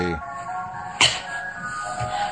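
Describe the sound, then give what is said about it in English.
A tinny electronic ice cream van chime plays a steady melodic tune, with a brief sharp whoosh or crack cutting through about halfway. “That's that's the ice cream van.”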